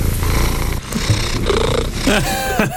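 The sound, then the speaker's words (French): A cat purrs in a steady, rumbling rhythm of low vibrating pulses, with a faint voice murmuring briefly underneath near the end. “Est-ce que peut nous faire écouter un petit ronronnement Ah, voilà.”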